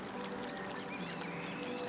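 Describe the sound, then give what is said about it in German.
A small brook babbles steadily, its continuous rushing and trickling water sound staying even in loudness throughout, with no voices present. “Oder du hörst einen kleinen Bach rauschen”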